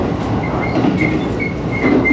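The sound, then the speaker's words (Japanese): A steady, dense rumble of the Super View Odoriko express train running through a tunnel on the Izu Kyuko line on the Izu Peninsula, Japan, with a continuous roar of wheels and air and faint high whines recurring every half second or so, no voices. “トンネルに入りましたね”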